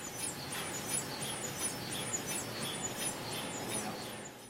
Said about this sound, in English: But you are hearing literally the fridge, this massive uh, cylinder full of liquid helium that chills the whole thing to uh, very close to absolute zero